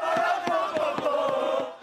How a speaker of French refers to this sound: Sur les Champs-Élysées, encadrés par un important dispositif de sécurité, les supporters auront donné de la voix jusqu'à tard dans la soirée sans incident majeur